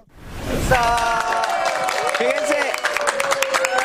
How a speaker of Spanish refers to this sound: aplauso. aplauso.